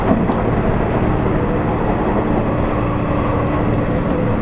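A Nishitetsu 8000 series electric train hums and rumbles steadily at a station, a continuous low mechanical drone with faint rattling; no one speaks.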